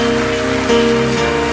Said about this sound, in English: Final round of a, a clap.